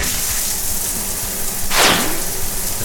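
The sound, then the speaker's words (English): A single swift whoosh sweeps through steady background hiss, rising and falling over about half a second: a sound-effect swoosh presented as a meteor of the Perseid meteor shower streaking past, with no voices. “I know I can't show it to you because we're on the radio, but I thought I'd play you a recording of when I got up last night in the middle of the night and observed the Perseid meteor shower.”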